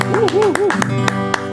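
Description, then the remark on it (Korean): About six sharp hand claps ring out at a loose, slightly uneven pace, layered over a steady tonal hum and a briefly wavering, voice-like tone. “아니 박수 한번 치시면”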